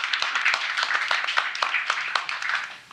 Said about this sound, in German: Sehr schön, auch das ist ein Applaus wert.